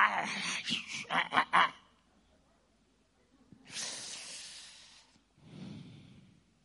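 A voice imitates a cat hissing: a few sharp spitting bursts, a pause, then a long, loud breathy hiss followed by a shorter, lower one.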